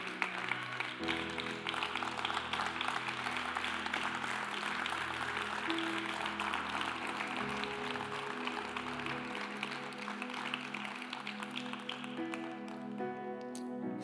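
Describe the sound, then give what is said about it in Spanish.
A church audience stands and claps steadily and loudly for the Lord for about thirteen seconds, a dense wash of applause over sustained keyboard chords and a low bass line that keep playing underneath. “Y si tú perteneces a Cristo Jesús, ponte de pie y regálale un fuerte aplauso al Señor, solamente si perteneces a Cristo Jesús.”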